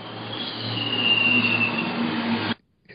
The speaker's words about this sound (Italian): Cos'è un missile che sta arrivando a casa di Platone? eh, vabbè, è l'autobus.